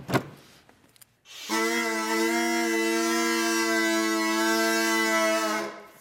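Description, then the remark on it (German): A homemade bagpipe, made with electrical insulation tubes from a hardware store and reeds cut from document sleeves, starts after a brief rustle and sounds only its drone (Bordun), one steady, buzzy, reedy tone with rich overtones for about four seconds before stopping. “Das ist jetzt eigentlich aber nur der Begleitton, der Bordun, sagt man ja.”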